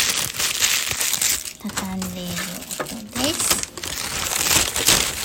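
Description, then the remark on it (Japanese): Continuous crinkling and crumpling of the paper wrapper of a second Tsukume burger, with a short voiced murmur partway through the rustling. “これは二つ目のつくめバーガーの包み紙を”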